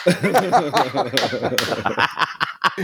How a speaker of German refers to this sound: Ich bin so stolz auf dich. Da kann man auch ruhig mal klatschen.